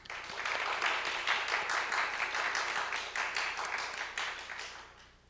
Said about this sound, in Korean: 오늘 초대받아 오신 블레싱 데이의 모든 게스트 VIP 여러분들에게 우리 따뜻한 박수로 환영하시겠습니다.